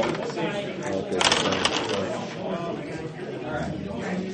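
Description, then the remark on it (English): Five dice clatter and rattle across a hard tabletop in a quick burst, fairly loud, with people talking faintly underneath; they are rolled for an invisibility check in a game. “Your yeah, give me an invisibility check. That's five dice.”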